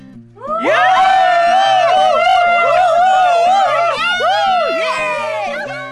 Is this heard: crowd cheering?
yes